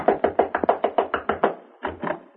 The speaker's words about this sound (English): inside a minute, you're beating your knuckles against Turner Elliott's door